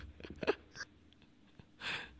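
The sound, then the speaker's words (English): A single quiet sneeze bursts out near the end, preceded by a few soft, breathy intakes and rustles. No one speaks. “God bless you.”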